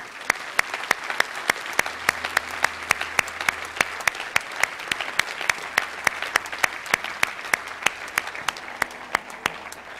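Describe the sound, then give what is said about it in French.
An audience applauds those who are making a decision for the Lord, clapping steadily for about ten seconds: a dense patter of many hands with sharp irregular claps standing out and no voices over it. “Est-ce qu'on peut applaudir ceux qui prennent une décision pour le Seigneur?”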